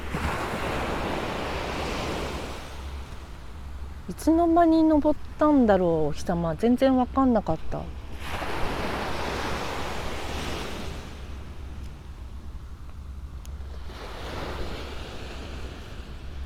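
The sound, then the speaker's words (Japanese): Waves wash in and break on a beach on the Shonan coast, Japan, in the morning after sunrise, in broad, rolling surges with steady breezy hiss, while a woman speaks briefly in the middle over the surf. “波の音をお届けします”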